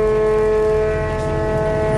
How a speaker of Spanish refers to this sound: Esas sirenas, esas bocinas del barco que suenan en el exterior. Y el barco que lleva la Virgen pues se va acercando.